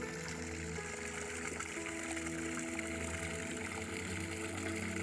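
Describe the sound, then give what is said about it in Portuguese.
Natural water pours steadily from a spout into a swimming pool, a continuous splashing rush with a low droning hum underneath, unbroken for the whole stretch and with no voices. “Isso aqui que é a nossa piscina, só que aí como tá água natural.”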